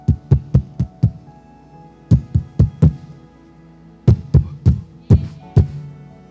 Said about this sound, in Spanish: he aquí, yo estoy a la puerta y llamo. Si alguno oye mi voz y abre la puerta, entraré a Él y Él cenará con Él y Él conmigo.